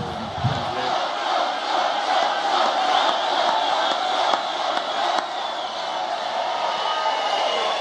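A large crowd roars and cheers steadily at a Donald Trump rally in the U.S., a dense wash of shouting voices that stays loud and unbroken throughout, with occasional sharper whoops rising above the din.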